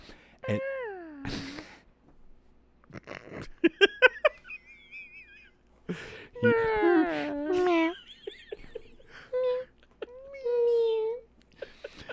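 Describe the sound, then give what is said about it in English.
A voice imitates Godzilla's dying death-rattle roar with a series of drawn-out, wavering wails and moans, fairly loud, broken by short pauses and sounding almost like a cat's yowl. “but so, so Godzilla comes up and he lets out kind of his like death rattle roar, which always just fills me with”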